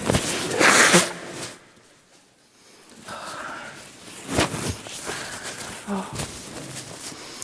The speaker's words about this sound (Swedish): Det går ju inte att snyta sig snyggt så då måste jag vända mig om.